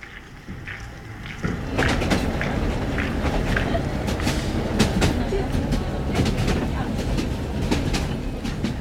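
A train in Madagascar, heading for the southwest of the country, rumbles steadily over its rail sleepers through cornfields, a continuous low roar with irregular metallic clicks and clatters over the rails, loud throughout after a quieter opening second.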